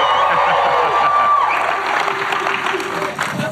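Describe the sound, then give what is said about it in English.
A loud crowd claps and cheers continuously, with scattered whoops and shouts rising above steady applause that stays dense and energetic throughout. “He wanted to make sure that we were louder than Gary's crowd.”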